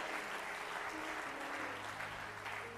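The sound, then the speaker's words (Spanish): Steady applause from an audience clapping strongly for God, a dense, even wash of many hands clapping together at a constant loudness, with faint sustained tones humming underneath throughout. “Vamos, darle fuerte palmas a Dios.”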